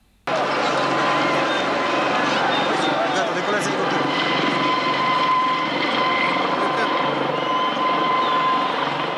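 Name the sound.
helicopter rotor sound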